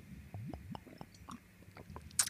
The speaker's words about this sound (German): Ich werde ganz, ganz äh, doll immer ins Mikro, Mikro atmen, dann äh, hört er mich andauernd am, am Trinken, weil ich mache euch das kurz vor, dann könnt ihr das auch zuordnen, warte.